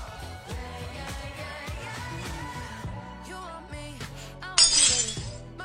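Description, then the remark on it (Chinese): A sudden, bright crash of breaking glass from a sound effect bursts in near the end, its crisp high shards ringing over continuous background music that plays throughout. “心碎的声音。”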